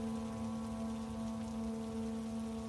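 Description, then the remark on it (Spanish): Steady, dense, very heavy rain hisses continuously throughout, with a low, constant mechanical hum droning underneath. No one speaks. “Seguía lloviendo demasiado fuerte y en cuanto nos bajamos del autobús, él se fue.”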